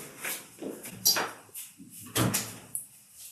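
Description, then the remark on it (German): A door is pushed shut amid a few short clunks and rattles, with one sharper knock partway through and quiet room noise between the bumps. “Kannst du vielleicht nur die Tür zumachen?”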